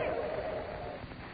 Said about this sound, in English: The wind grew wilder and wilder.